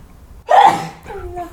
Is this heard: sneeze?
yes